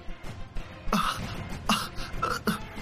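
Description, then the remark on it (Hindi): Loud, choking coughs from a woman clutching her throat, feeling unable to breathe, burst out in three harsh, strained fits roughly every three-quarters of a second, raspy, with gasping between them and no talking. “और वो अपना गला पकड़कर जोर जोर से खांसने लगी उसे ऐसा महसूस हो रहा है जैसे उसे सांस ही ना आ रही हो”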